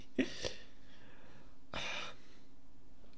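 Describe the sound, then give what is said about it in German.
Two short, breathy coughs about a second and a half apart, fairly quiet, from a person on an online call who muted too late, with no talking around them. “Sorry, ich habe gerade gehustet und mich zu spät gemutet.”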